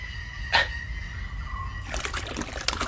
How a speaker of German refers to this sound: Also erstmal muss diese Brühe jetzt weggekippt werden, sage ich, und werf quasi die Suppe ins Wasser.